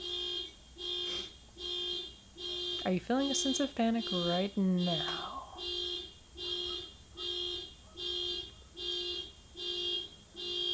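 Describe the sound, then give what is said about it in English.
A car alarm goes off outside, blaring in a steady repeating on-off pattern, roughly one honk-like pulse per second, with a person speaking briefly over it partway through. “There's a car alarm.”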